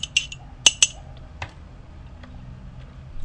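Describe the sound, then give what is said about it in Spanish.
Someone sipping coffee from a cup, with a few sharp, bright clinks of the cup early on, then quiet handling sounds and soft ticks over a low background hum, no talking. “Bueno, me voy al segundo tema, pero me voy a dar un sorbito nuevo de café.”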